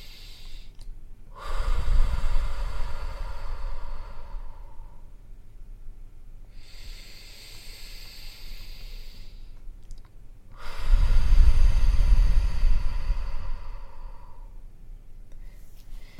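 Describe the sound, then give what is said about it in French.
Slow breathing exercise with no talking: two cycles, each a quieter inhale through the nose followed by a longer, louder, airy exhale through the mouth like a sigh, separated by brief pauses. “On va inspirer par le nez et on va expirer plus longtemps par la bouche.”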